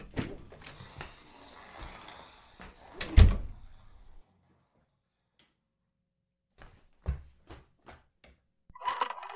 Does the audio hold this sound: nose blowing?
no